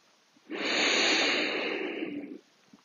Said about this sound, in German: Und wenn du jetzt langsam in deiner Position angekommen bist, nimm drei tiefe Atemzüge, atme durch die Nase ein und durch den Mund wieder aus. Und durch den Mund aus und noch einmal durch die Nase ein